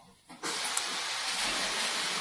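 Water rushes as something is flushed: a steady, bright hissing roar that starts abruptly after a brief quiet moment and keeps going at an even level, with no voices.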